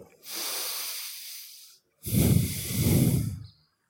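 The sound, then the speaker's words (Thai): A long, airy breath drawn in, a brief pause, then a heavier, rougher breath pushed out, loud with no talking, as part of a meditation breathing practice. “วิธีการทำโผตพารมก็คือ หายใจเข้าออก”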